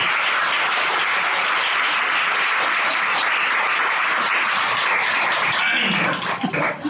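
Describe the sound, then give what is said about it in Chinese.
Steady, dense audience applause from many hands clapping at once, a loud continuous patter that holds for several seconds before thinning out at the end. “我们给鼓鼓掌。”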